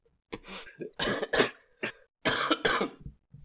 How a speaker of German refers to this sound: Boah, das war jetzt gerade eine richtig weirde Situation. So, beide schießen Props raus und fangen an zu husten.